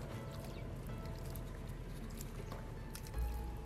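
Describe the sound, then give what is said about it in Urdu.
Water is poured onto Fossil Rock, a rock full of fossils in an area that was once sea, splashing and trickling steadily onto the hard surface, a continuous wet hiss with small drips, and a brief low thump near the end. “ہاں جی اس پورے راک میں آپ کو ایسے ہی فصل ملیں گے oh کہیں پہ بھی پانی ڈالو تو ایزیلی نظر آئیں گے دیکھو”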